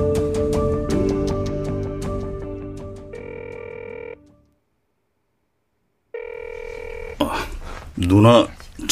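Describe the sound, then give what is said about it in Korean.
A phone call rings out unanswered: two electronic ringback tones separated by a silent pause, clear, with muffled sound before and voices breaking in afterward. “전화 안 받는데?”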